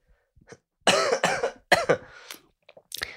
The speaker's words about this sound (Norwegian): Det var første hosten i denne podkasten.